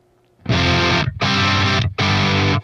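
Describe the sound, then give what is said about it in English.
Three loud electric guitar chords with a warm, crunchy overdrive, played through the green crunch channel of a Revv amplifier with the gain all the way up and no pedal, each ringing for about half a second before a short gap, with no talking. “Really nice, warm, crunchy sound.”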